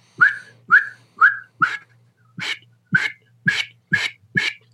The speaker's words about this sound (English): And so, when I blow into a call, I'm saying oot, oot, oot. And I'm taking the word away. So I'm going, oot, oot, oot. and if you listen to me, I can actually incorporate a whistle in there and then take it away.